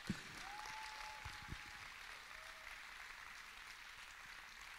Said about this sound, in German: Lass uns mal einen Applaus geben, oder? Applaus